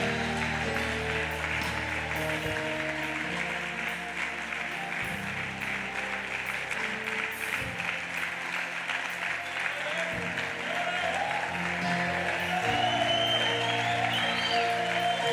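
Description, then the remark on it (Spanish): An audience applauding Jesus loudly and steadily for about fifteen seconds, a dense wash of clapping with faint musical tones underneath and a brief rise in intensity near the end. “Den un aplauso fuerte a Jesús. Más fuertes para Él.”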